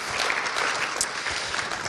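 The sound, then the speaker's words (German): A church audience applauds the worship team, many hands clapping in a dense, steady wash of sound that holds at an even level throughout, with no voices rising above it. “Gebt denen mal einen vollen Applaus, habt ihr toll gemacht.”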